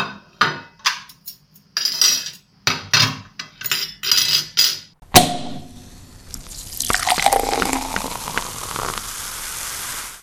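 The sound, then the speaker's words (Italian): Plates and cutlery clink in a quick run of bright, ringing knocks for several seconds as plates are taken, then a sharp burst as champagne is uncorked gives way to a steady fizzing, splashing wash of sound. “Forza, prendete i piatti e stappate lo champagne!”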